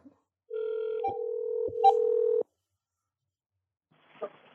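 A steady telephone tone hums for about two seconds, broken by a few short dialing beeps and clicks, then cuts off into silence before a faint, brief rustle near the end.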